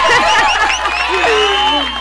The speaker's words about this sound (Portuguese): Palmas. Não, tem palmas, tem palmas.